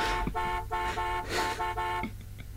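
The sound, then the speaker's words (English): Car horns blare in continuous, overlapping honking from cars idling in a McDonald's drive-through queue in Dural, blocked by a driver asleep in his car, over a low idling engine rumble, the tones swelling and dipping with a few brief gaps, loud. “It's causing plenty of frustration at Dural McDonald's as cars idle in the queue, beeping as you can hear, swearing and bashing on the slumberer's car window to try and wake him.”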